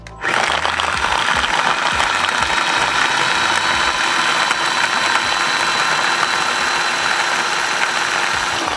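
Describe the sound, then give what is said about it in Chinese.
A small electric food chopper, lid locked and started by pressing the button on top, runs steadily for about eight seconds, a loud, continuous motor whir with a gritty, rattling edge as garlic is minced inside. No one speaks. “好，那我现在已经把它盖住了，那你就按最上面的这一颗钮，它就可以开始搅碎。好，我们来启动。”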